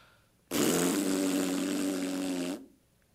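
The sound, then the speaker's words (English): A loud, buzzing raspberry blown with the tongue and lips, one sustained flapping burst lasting about two seconds, alone with no talking. “The sound made with the tongue and lips in order to express derision or contempt.”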